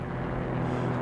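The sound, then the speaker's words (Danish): A propeller airplane drones steadily overhead, its low engine hum constant and fairly loud, with no voices present; the plane circles over a celebration during H.P. Hansen's speech and drops a Dannebrog flag over the crowd. “Hans tale bliver øh, forstyrret af en flyver, øh, som kredser rundt over festen og smider et øh, Dannebrogs flag ned over forsamlingen.”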